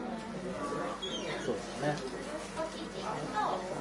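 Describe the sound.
Birds call outdoors in short chirps and whistled sweeps scattered through a few seconds, set against a steady, busy background hum with what may be faint voices.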